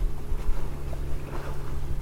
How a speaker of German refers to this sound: Wir werden jetzt von Tony und Mel mit ihrem Dingi gezogen.